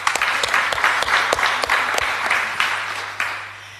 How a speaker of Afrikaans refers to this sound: geef hem maar lekker de klap.